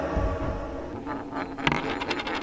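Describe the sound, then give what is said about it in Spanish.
A small centavo coin drops with a sharp metallic clink, then rattles and rings in quick, tightening bounces as it settles, fairly loud over a steady low background. “Dame un chance, te suplico en este centavito. Pongo mi fe y corazón.”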